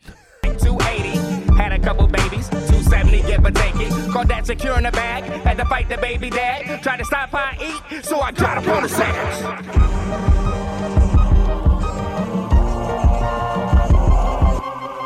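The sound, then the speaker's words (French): A loud hip-hop instrumental intro with punchy, driving low-end beats and layered melodic parts, playing continuously without vocals and with a short break near the middle. “Je pensais qu'on allait s'en sortir sans hip-hop”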